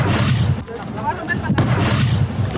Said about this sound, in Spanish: Sí, son los pues, petardos que tiraron.